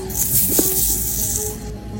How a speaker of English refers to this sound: You'll see hissing tarantulas